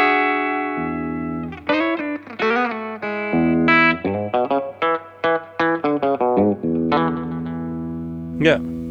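Distorted electric guitar in standard tuning plays a lead phrase: a sustained low note, some bent notes, then a quick run of short picked notes, ending in a held chord and a brief high slide.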